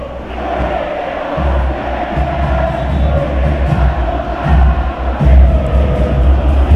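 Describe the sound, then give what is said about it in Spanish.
A large crowd of Racing football supporters sings a stadium chant in unison, played as a background song, a dense, roaring wall of voices that holds steady and swells slightly louder toward the end, with a deep low rumble underneath. “Racinguista mm, y, hoy tenemos una canción de fondo para que la gente participe, cante, como siempre todos los viernes.”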